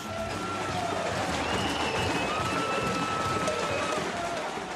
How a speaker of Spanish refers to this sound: La noche del 19 de diciembre, en las calles de Argentina, solo se oyen cacerolazos.